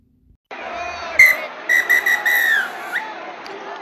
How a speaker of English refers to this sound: And that's the final whistle.